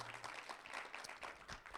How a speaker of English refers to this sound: So praise God. Give yourselves another hand clap for that.